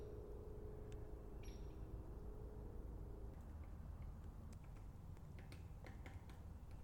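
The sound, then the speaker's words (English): A downy woodpecker hammers on wood in a swamp in a series of sharp, irregular taps in the second half, set against a steady low engine drone from a biplane flying over the swamp. “Man, that little downy's just hammering away.”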